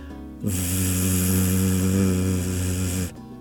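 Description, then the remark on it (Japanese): A single sustained voiced 'v' sound, demonstrated with the upper teeth lightly touching the inside of the lower lip and the vocal cords used, held steadily for nearly three seconds, with a low hum under breathy friction, starting and stopping abruptly. “はい、で、えっと、V の音っていうのは全く同じ口の形同じ歯の位置で、えっと、声帯を使います。”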